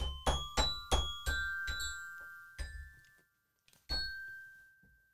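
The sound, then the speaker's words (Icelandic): A run of bright bell strikes, about eight notes at uneven intervals with ringing tones that hang and decay, stumbling through a tune with a pause near the end before a final struck note. “Nei, björn með þessa bjallur Ah, ég er svo algjör klunnað á þetta hljóðfæri”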